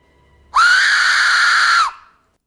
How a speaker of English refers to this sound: It's just a whistle. This has been deemed the most terrifying sound in the world.